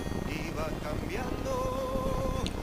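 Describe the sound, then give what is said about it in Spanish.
A helicopter's steady, droning rumble fills the background at a constant level, with a faint whining tone riding on top and brief murmurs of voices mixed in. “Hay un helicóptero, boludo. Se escucha un helicóptero.”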